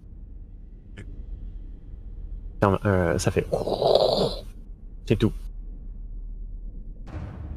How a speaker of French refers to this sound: Puis, c'est ça, dans le fond, vous entendez un, un espèce de pas un grincement, mais plus comme de la roche qui, qui se frotte.